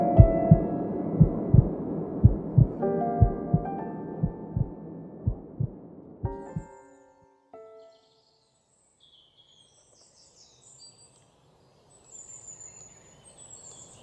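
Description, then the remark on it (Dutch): A steady, thudding heartbeat in paired pulses over a sustained musical drone fades out after about six seconds, leaving near-silence with faint birdsong. “Zolang het hart blijft kloppen, komt er altijd een volgende keer.”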